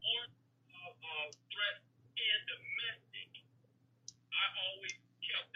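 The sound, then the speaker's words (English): Scattered light clicking from a computer in a caller's background on a faint phone line, mixed with muffled background voices and a steady low hum. “The, yeah, I can hear up. the computer in the background.”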